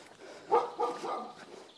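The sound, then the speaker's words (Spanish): A dog behind a fence barks twice in quick succession, sharp and moderately loud, followed by a few softer, fainter barks against a hissy background. “Coño, qué susto ha el perro, macho. Casi me da una colleja por detrás de la valla.”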